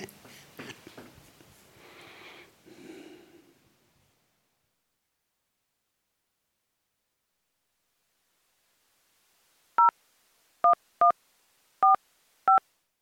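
telephone number being dialed

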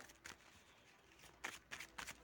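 shuffling playing cards

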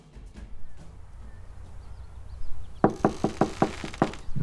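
knocking on a door

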